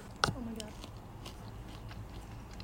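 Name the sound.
chewing food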